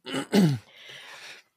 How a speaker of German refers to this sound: Gesundheit. Gesundheit.